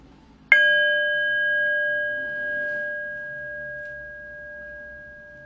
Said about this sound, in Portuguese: Daqui a pouco eu vou convidar o sino a soar para que a gente possa encerrar esse período formal de prática. Quando isso acontecer, não precisa se mexer correndo. Apenas observa o efeito do som do sino na sua prática nesse momento.